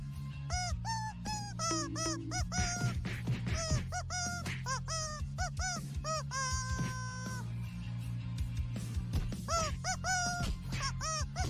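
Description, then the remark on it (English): A rubber chicken squawks over and over in loud, shrill, honking bursts, some short and choppy, one stretched into a long wail, over a steady low hum with no talking. “laying there surrounded by 80,000 people with a rubber chicken a foot away from your head”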